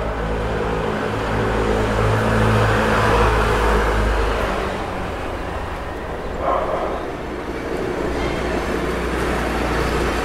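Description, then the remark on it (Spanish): Street ambience from a window, recorded four months earlier, before the quarantine: a steady wash of traffic noise with a heavy, droning engine rumble through the first half, easing slightly later, with a brief sharper sound midway. “Así sonaba mi calle desde mi ventana en esta grabación que hice hace cuatro meses.”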